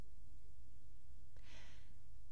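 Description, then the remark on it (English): A single short, breathy snort or sniff from a hedgehog eating a meal set out for it in a garden bursts out, lasting about half a second against an otherwise quiet background with a faint low hum. “Dinsdale Hedgehog, with much sniffing and snorting, set about devouring the meal placed before him”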